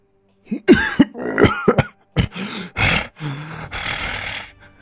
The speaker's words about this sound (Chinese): 老姜猛地咳嗽了几声，嘴角一斜